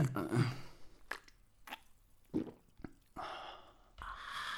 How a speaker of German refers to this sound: An alle minderjährigen Kinder, so hört sich's an, wenn du halt das erstmal in eine Dose ne? aufmachst. Ja. Und die dann trinkst. Ich vor, das ist das Geräusch, wenn du das erste Mal eine Dose aufmachst.